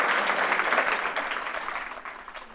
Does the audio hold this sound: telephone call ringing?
no